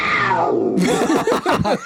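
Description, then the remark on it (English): A loud tiger roar opens with a long, falling, tonal howl, then breaks into rough, raspy growling bursts that warble up and down for about a second, with no talking. “yeah, that tiger sound totally tragic.”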